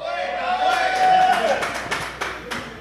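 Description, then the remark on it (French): A Festipod audience applauds, dense clapping filling the room with sharp individual claps cutting through, while someone lets out a long rising whoop over the cheering. “C'est-tu des applaudissements de Festipod ou il y a aussi des punk rockers dans la salle?”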